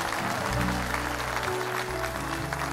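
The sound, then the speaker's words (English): An audience claps steadily as a clap offering to the Lord, a dense, continuous wash of applause over sustained low organ-like music, filling the whole stretch at an even, fairly loud level. “Now give the Lord a clap offering one more time.”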